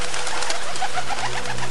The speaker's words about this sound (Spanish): En ese momento la bandada de aves que vi llegar acá, a la que seguí, pareció multiplicarse, pero por mil. Empezaron a salir volando de múltiples lugares del volcán.